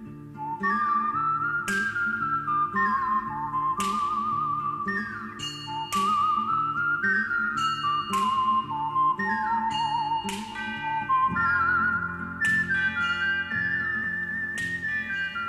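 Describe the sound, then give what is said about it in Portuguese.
A loud whistled melody with wavering vibrato carries the theme of the 1964 Sergio Leone spaghetti western film A Fistful of Dollars, combining whistling, trumpet and a revolver shot, backed by steady rhythmic orchestral accompaniment and sharp, bright accents recurring every couple of seconds. “juntou um assovio um trompete e um tiro de revólver nessa trilha que se tornou icônica e tão célebre como a obra de Sérgio Leone.”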